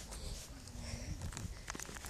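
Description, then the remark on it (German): Soft, irregular footsteps crunch and swish through grass as someone walks across a meadow, accompanied by faint rustling and a low background hum. “ich muss jetzt noch über eine Wiese gehen.”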